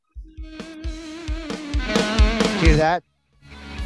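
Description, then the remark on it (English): A punchy bass riff drives a short burst of rock theme music, free background music found on YouTube, with steady rhythmic low notes under sustained chords for about three seconds before cutting off abruptly, followed by a brief spoken voice. “We just want to thank them for providing this, this dope riff. We use it as our theme, and it always is in the background.”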